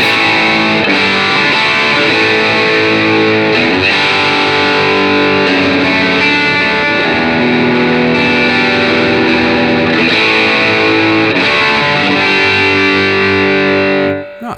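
A loud, gritty distorted electric guitar, with no treble bleed and its volume turned up to full, plays chunky chords and riffs continuously for about fourteen seconds, dense and saturated, with no voices, then cuts off abruptly at the end.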